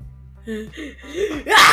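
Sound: a big sneeze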